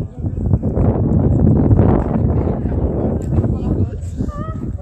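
Wind buffets the microphone throughout, a steady low, blustery rumble that swells and eases without stopping, with a few faint higher chirping tones near the end.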